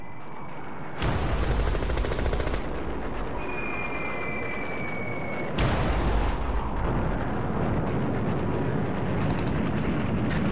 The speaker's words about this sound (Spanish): Se metieron de lleno con sus obsoletos Douglas Devastators en un enjambre de cazas cero del que llovía fuego antiaéreo. Fue un desastre.